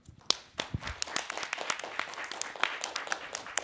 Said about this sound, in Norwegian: Og så kan vi klappe våre største vikingklapp for å si 'Tusen takk for alt du har lært oss,